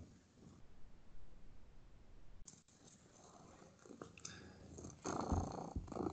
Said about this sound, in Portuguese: Sabe que a de gato fica fofando? Sim, isso dói tá ronronando. Tá, tá ronronando.